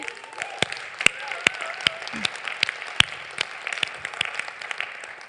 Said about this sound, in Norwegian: Eh, så tusen takk. Kan vi ikke klappe for de?